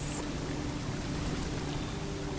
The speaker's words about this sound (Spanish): Escucha la cascada al caer. Cómo el sonido relaja tu cuerpo.